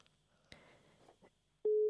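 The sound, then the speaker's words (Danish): A loud, steady phone ringing tone, as a call is placed to a friend, starts abruptly near the end and holds at one pitch, after a stretch of faint clicks and low background rustle. “Vi ringer til min ven Hjalte.”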